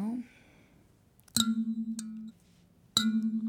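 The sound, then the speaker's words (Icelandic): Two plucked kalimba notes, each with a bright metallic attack and a sustained, wavering low ring. The second pluck lands about a second and a half after the first. “Uh, já, við komum með svona hérna, hljóðfari já. sem heitir Kalimba Getur við fengið að heyra þessi?”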